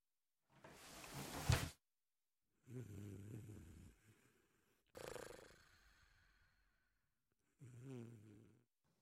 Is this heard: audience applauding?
no